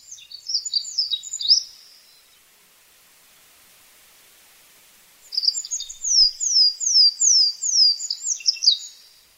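An olive-backed pipit sings in fog, with the torii gate and shrine of Katsutamine Shrine beyond, in two bright, high-pitched bursts separated by a pause: a short twittering phrase, then a longer run of rapid, sweeping trills and buzzy notes, fairly loud over faint hiss.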